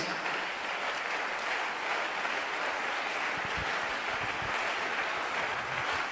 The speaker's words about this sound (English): It's a good place for you to clap your hands.